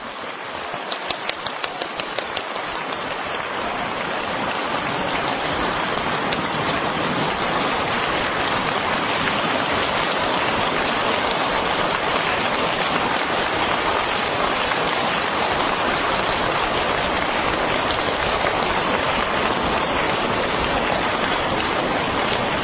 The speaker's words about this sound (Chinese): 现在，让我们用最热烈的掌声，恭请我们大慈大悲的卢军宏台长。